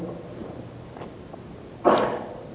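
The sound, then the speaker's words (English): Scattered faint rustles, then a louder swell of papery rustling near the end as an audience turns thin paper Bible pages to Romans 4 at once, with no voices. “I love the sound of paper instead of clicking.”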